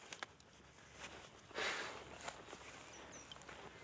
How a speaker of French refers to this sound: J'adore marcher dans la boue.